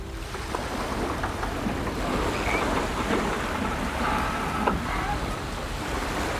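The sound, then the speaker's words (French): Steady rush of wind and sea water aboard a dark wooden sailboat, a small dragou-type trawler with a white band along its hull, a dense continuous wash of noise broken by a few faint creaks and knocks from the hull and rigging, with no voices. “Tout de suite, nous embarquons à bord d'un voilier, tout de bois sombre, le flanc taillé par une bande blanche, comme une bravade que ce petit chalutier adresserait aux éléments.”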